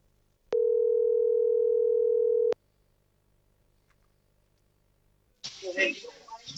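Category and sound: signal or alarm, phone call ringing tone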